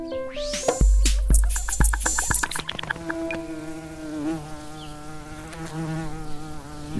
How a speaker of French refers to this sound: La mouche s'approche. Elle n'a pas vu la mante religieuse, quasiment invisible sur son brin d'herbe et complètement immobile.